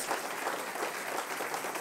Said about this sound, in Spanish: Si usted va a dar un aplauso, hermano, por favor. Si es para el Señor, hágalo bien.